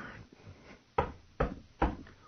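Three firm knocks on a door by a plumber who has come to fix the sink, evenly spaced, each a sharp wooden thud over a quiet background with no voices.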